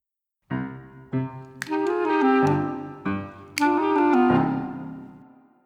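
A short, bright instrumental jingle with bold chords and punchy accents, playing loud and alone for a few seconds before fading out.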